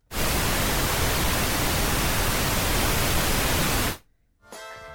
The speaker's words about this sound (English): Do you want my answer now? Yes, please. I think that could be brown noise. Oh God. Apparently, that is pink noise.